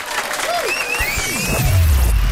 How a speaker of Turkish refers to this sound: Veda zamanı bitiriyoruz. Şahaneydiniz. Alkışlar size sevgili dinleyenler.